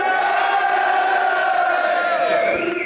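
audience cheering and shouting

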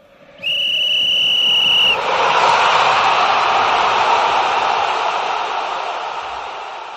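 whistle blow

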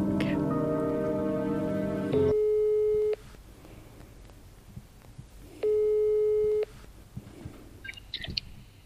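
telephone ringing tone

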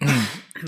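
throat clearing

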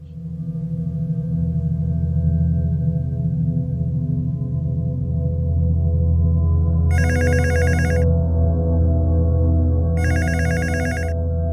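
telephone ringing

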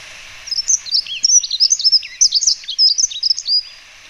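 dunnock song

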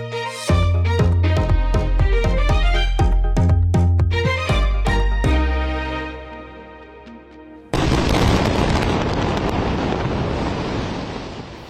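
huge explosion

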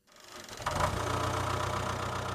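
tractor engine running

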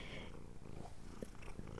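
domestic cat purring

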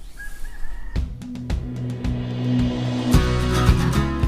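birds calling outdoors

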